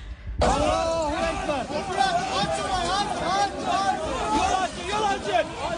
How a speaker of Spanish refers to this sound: Alá es lo que grita la gente. Son eh, musulmanes, dicen el Dios es grande cuando escuchan que alguien ha podido ser rescatado y enseguida se escucha las sirenas de las ambulancias tratando de llegar a los hospitales.